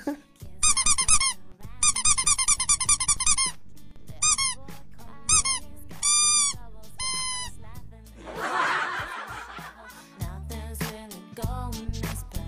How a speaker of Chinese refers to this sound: 还有啊，你边讲段子边捏鸭子，好辛苦呀。”呃，果诺诺，那个鸭子是音效呀，不信你听。